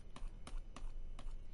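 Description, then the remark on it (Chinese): Four quiet pen strokes scratch across a drawing surface in a loose, uneven rhythm, made while drawing with large strokes, each a short dry brushing sound with soft hiss, and no voices. “现在可能我会发出那种笔触的声音了，因为我现在画的东西笔触比较大”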